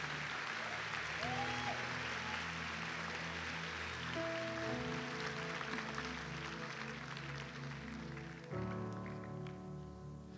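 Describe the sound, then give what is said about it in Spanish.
An audience at an afternoon church service claps loudly and steadily for about ten seconds, giving applause to the Lord, a dense wash of applause over sustained keyboard chords that shift a few times underneath. “Bien fuerte ese aplauso al Señor en esta tarde.”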